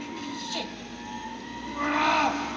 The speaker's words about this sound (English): You know who is not cool with me? That fucking truck that is outside my window. So my apologies, people.